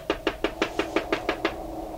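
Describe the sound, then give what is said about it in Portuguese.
Someone knocks on the kitchen door: eight quick, evenly spaced raps in a steady rhythm, each sharp and hollow, then the knocking stops. No one speaks. “Parece que alguém bateu.”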